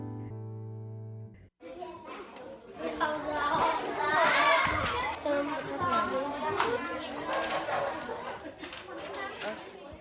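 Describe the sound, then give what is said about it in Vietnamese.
Lively chatter of many village children talking, laughing and calling out over one another at the Dương Liễu book library in Dương Liễu commune, Hoài Đức district, Hanoi, Vietnam, on a weekend, where they come to read and borrow books; steady and busy throughout after a brief low tone at the start. “Những ngày cuối tuần, Thư viện sách Dương Liễu ở xã Dương Liễu, huyện Hoài Đức, Hà Nội lại rộn ràng tiếng cười đùa vui vẻ của những đứa trẻ làng quê lùi tới đây đọc và mượn sách.”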